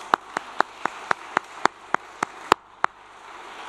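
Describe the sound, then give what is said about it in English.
Hands clapping at the end of a talk in a steady, even rhythm, about ten sharp claps a little over three per second, fairly loud over a soft background hiss, with no talking. “I want to clap you guys.”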